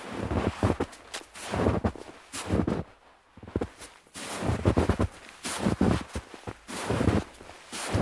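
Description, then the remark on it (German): Creaking footsteps tread steadily, a rhythmic series of scuffing, groaning steps that pause briefly partway through before continuing at the same unhurried pace. “Jedoch hörte er plötzlich knarzende Schritte hinter sich.”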